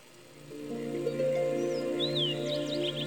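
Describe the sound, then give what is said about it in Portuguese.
A few quick, sweeping chirps of birds at dawn rise over a steady, soft musical drone, coming in the second half, light, with no voices present. “No amanhecer, ouço o canto dos pássaros saudando”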